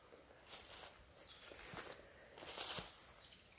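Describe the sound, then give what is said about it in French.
Faint birdsong drifts through a quiet forest on a mild Indian-summer morning, thin high chirps and short trills coming and going, with soft crunching footsteps on the ground. “Écoute le chant des oiseaux.”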